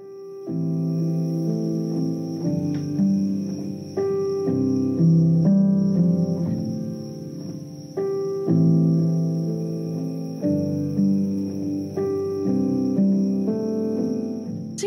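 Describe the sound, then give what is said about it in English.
A mellow instrumental piece with soft, sustained chords shifting every second or two at a steady, even volume, over a faint high continuous tone. No voices. “that is instrumental.”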